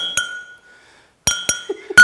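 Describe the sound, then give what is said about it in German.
Two drinking glasses clink together in sharp, bright strikes: a single clink with a long ringing tone, a pause, then a quicker flurry of three or four knocks, the last one loud. “Es waren mal zwei Gläser, die sind eigentlich gut miteinander ausgekommen. Und dann war aber mal so ein bisschen so ein Gerangel.”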